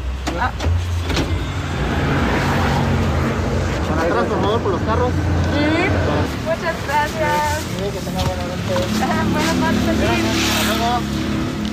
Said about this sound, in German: In Oaxaca war ich sehr froh, dass wir da nicht selber fahren haben müssen. Der Verkehr zu Stoßzeiten ist nämlich die absolute Hölle. Tausende Autos, viele riesige Lkw, viele Fußgängerinnen, viele Mopeds und sehr, sehr kleine Gassen.